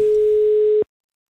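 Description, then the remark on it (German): A single steady telephone ringing tone from an outgoing call placed with a telephone receiver, one clear mid-pitched beep lasting nearly a second before cutting off to silence, heard alone. “Und deshalb habe ich einfach den Telefonhörer genommen und sie angerufen.”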